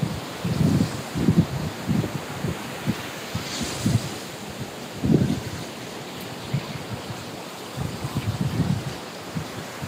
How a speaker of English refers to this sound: And uh, today, instead of a bell, guess what we get to listen to? you know, the ocean. So friends, let's, let's get a little breath. And just take a second, a minute, and listen to the waves.